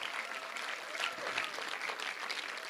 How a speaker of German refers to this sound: Lass uns Gott mal Applaus geben, der verrückte Dinge macht, aber so, als würdet ihr es echt glauben, dass er sowas macht.